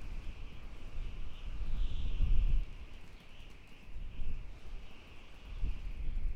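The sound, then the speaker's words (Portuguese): Strong wind blows steadily in the mountains at a great height, swaying trees and a fragile bridge, with a deep, roaring rumble swelling into heavier gusts every few seconds, while a thin, constant hiss sits above it. No one speaks. “O vento soprava super forte, e as árvores e a ponte balançavam.”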